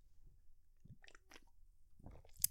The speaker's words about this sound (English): Ah, sorry, I had to take a sip of that beer. Find out what it tastes like.